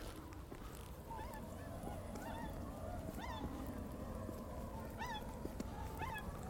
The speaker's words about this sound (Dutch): Maar klein zwaan doet oep, oep, oep. Ja, ik hoor, je, het is een beetje melancholisch gefluit.